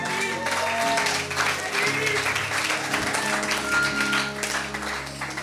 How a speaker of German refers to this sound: Komm mal, gib mal einen Applaus.